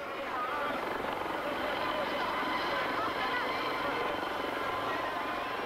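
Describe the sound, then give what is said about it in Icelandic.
A helicopter roars steadily as it lifts off in Bucharest carrying the dictator and his wife. Its dense rotor and engine noise fills the whole stretch without letting up, with a possible faint murmur of voices underneath. “Eginlega á sama augnabliki og þyrlan með sjá sesku hjónin hóf sig á loft”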